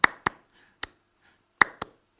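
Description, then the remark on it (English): Six sharp hand claps, played into a loop pedal, in an uneven rhythm: two quick ones, a single one, then another quick pair and a final clap, each crisp and bright with short decays and no talking. “So I was doing this loop pedal thing, and I was doing hand claps into the loop pedal.”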